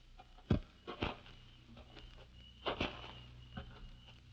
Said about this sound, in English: And suddenly you veer off and wait in the darkness. Then you hear the footsteps.